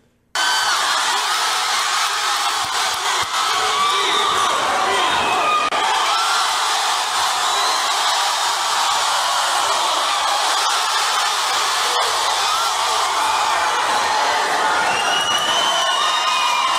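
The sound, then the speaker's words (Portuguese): A large crowd at a fight shouts and cheers continuously, a dense roar of many voices filling the space with scattered whoops and yells rising above it, steady and loud throughout. “Eu gosto que os pelegos são obrigados a ficar gritando lá, curtindo, um monte de apaniguado.”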